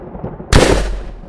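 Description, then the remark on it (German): An electric thunder shock effect bursts in abruptly and loudly, a harsh crackling blast with a deep rumbling tail that fades over about half a second, with no voices. “Donnerschock.”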